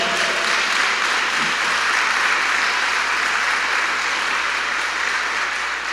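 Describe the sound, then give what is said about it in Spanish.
An audience applauds the Lord steadily, a dense, sustained wash of many hands clapping at once, loud and continuous throughout without speech on top. “Dele fuerte ese aplauso al Señor.”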